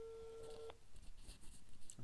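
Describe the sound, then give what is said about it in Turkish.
A phone's outgoing ringing tone from a call placed through a chat app sounds once, a steady electronic tone lasting under a second, then cuts off, leaving faint background noise and soft rustling. “Chatten bir çalıyor.”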